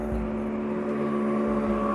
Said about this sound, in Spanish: mientras pasaban pila de motos y carros, y logré ver el amanecer yo sola.